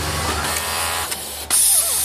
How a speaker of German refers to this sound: Und so klingt so eine Nähmaschine. Ich dachte immer, die klingen ganz anders. Also bei meiner Oma klang das immer ganz, ganz anders. Aber solche Industrienähmaschinen klingen so.